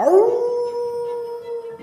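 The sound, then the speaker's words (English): A massive grey, shaggy wolf lets out a single loud, sustained howl, swooping up at the start and then holding one long, steady note, with no other sounds. “you see the Fennec Fox suddenly appear out of a flurry of snow, just as a massive grey, shaggy wolf leaps into view”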